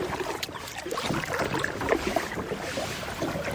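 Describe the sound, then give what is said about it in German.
Paddling a rented kayak on the Nam U river toward Nong Kiao: steady splashing and watery churning with soft, irregular paddle strokes over a constant wash of moving water, no voices present. “Wir verabschieden uns und ich beginne mit einem gemieteten Kajak über den Fluss Nam U Richtung Nong Kiao zu paddeln.”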